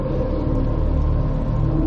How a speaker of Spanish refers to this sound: El ruido es casi ensordecedor y contempláis horrorizados cómo el avión está condenado al desastre.